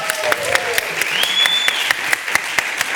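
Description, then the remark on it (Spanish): A crowd applauding steadily, with a dense wash of clapping punctuated by sharper, louder claps at irregular intervals, and a thin high whistling tone that rises and holds partway through. “Bravo, un aplauso.”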